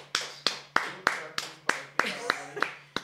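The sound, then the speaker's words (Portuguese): Steady hand clapping, about ten sharp, crisp claps at an even, brisk pace, with a low hum and faint voices murmuring underneath. “Palmas, palmas, então, palmas.”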